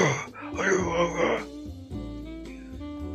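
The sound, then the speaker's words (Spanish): A man growls in an exaggerated hoarse, gravelly low voice, imitating Batman's gruff voice; fairly loud for about three seconds, strained and raspy throughout. “la parte la voz, ¿no? La voz toda ronca.”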